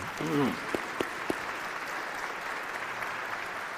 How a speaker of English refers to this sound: Well, thank you, everybody. Let's give a round of applause to our panel today. Thank you.